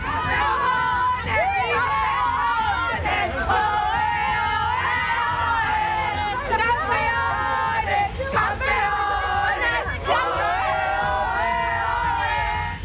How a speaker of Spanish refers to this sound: Esta es la primera vez que la selección marroquí avanza a cuartos de final y los aficionados celebraron con lágrimas y gritos de emoción este triunfo de sus seleccionados.